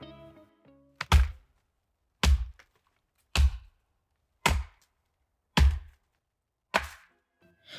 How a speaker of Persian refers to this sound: کار سختی بود. درخت خیلی بزرگ و تنومند بود. اون با تبرش ساعتها به تنه درخت زد.